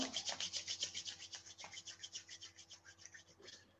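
Palms rubbing briskly together, a steady run of soft, airy swishing strokes about eight per second, loudest at first and easing off toward the end, with no voice.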